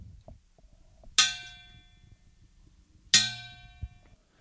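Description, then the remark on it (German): A metal soup pot is struck twice, about two seconds apart, each hit a bright, clanging strike that rings on with a shimmering, slowly fading metallic tone. Nothing else is heard. “das ist der Suppentopf, ne?”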